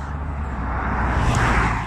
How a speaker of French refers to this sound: il y a une voiture qui passe